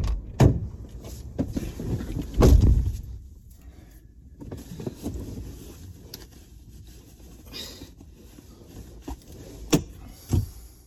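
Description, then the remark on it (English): Someone climbs into a car: muffled thumps and bumps, shuffling and rustling in a small enclosed space, then a few sharp clicks and knocks near the end, with no one speaking. “And I don't know about you guys, but almost every single time I get in my car, it goes a little something like this.”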